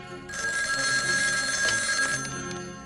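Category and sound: household object, telephone ringing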